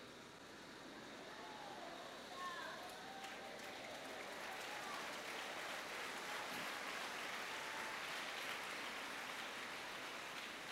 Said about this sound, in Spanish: Por algo aplaude, ¿verdad? Usted sabrá por qué aplaude.